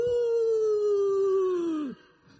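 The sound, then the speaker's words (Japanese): A voice imitates the siren of an unmarked police car stopping a driver for speeding on a highway, with one long, loud, steady wail that sags slightly in pitch and cuts off after about two seconds. “And the next moment, we, I heard that sound and I was caught by、um, the police car.”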